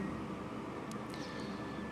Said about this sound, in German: Ja, und wie du wahrscheinlich auch im Hintergrund hörst, bin ich einmal wieder im Zug unterwegs.